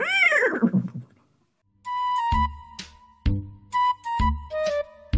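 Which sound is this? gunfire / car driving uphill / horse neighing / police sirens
horse neighing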